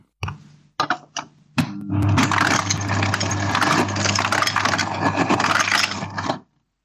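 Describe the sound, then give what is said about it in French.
An ice dispenser played as a musical instrument on Radio EMF: a few sharp clicks and clacks, then roughly five seconds of loud, steady motorized whirring and grinding with ice cubes rattling and clattering out. No one speaks. “Jouez du distributeur de glaçons.”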